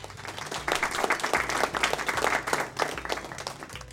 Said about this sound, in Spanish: Y lo felicitamos nuevamente porque ha sido el ganador del primer puesto de exposición Saberes y Sabores. Un fuerte aplauso.